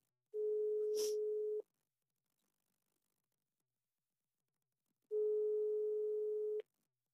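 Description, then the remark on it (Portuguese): A telephone busy signal on a call that nobody answered: two long, steady mid-pitched tones, each about a second and a half, separated by several seconds of silence, with a brief click at the start of the first. “Se ninguém atendeu, ninguém atendeu.”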